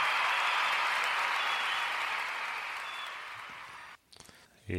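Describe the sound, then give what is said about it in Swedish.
An applause sound effect: a burst of applause from a crowd, dense and steady clapping that fades slightly before cutting off abruptly near the end, followed by a brief voice. “Vill du ha ett ljud, en ljudeffekt till det? Varsågod. Där har du den. Grattis!”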